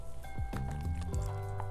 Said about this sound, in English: water break.